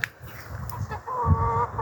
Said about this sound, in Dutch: Oh, en de kippen zijn al wakker.